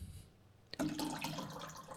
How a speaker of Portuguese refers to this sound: Estou com sede. Vou beber água.